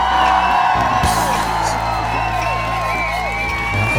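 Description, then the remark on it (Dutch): A crowd cheers and whoops loudly with steady clapping underneath, applauding two guests from the company Mortel; a dense, sustained roar of excited voices filling the whole stretch without letting up. “mag ik een groot applaus voor onze vrienden van Motel Maarten Goed en Frans Oudendorp”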